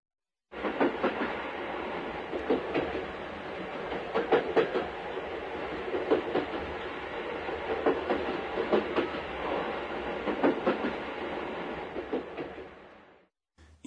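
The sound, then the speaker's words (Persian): A train rolls steadily along the tracks, its wheels clacking in a repeating rhythm over a constant rumble. Fairly loud, with no voices. “این صدای حرکت قطاره درسته؟”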